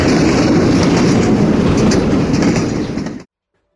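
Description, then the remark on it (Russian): Train wheels clatter loudly over rail joints in a steady, rapid rhythm beneath a heavy rumbling roar, with no voices, then everything cuts off abruptly into silence. “Колеса били о стыки рельс, будто перескакивая с одной на другую.”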